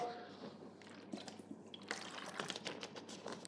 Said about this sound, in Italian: Adesso datemi un secondo, ovviamente solito goccio d'acqua.